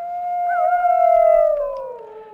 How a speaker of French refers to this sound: Le loup est de retour.